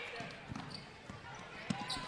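A basketball being dribbled in the front court by Naya Hickman of Urbandale in a game against Dowling, a handful of dull, bouncing thuds at a loose steady rhythm, heard against the busy murmur of a crowd.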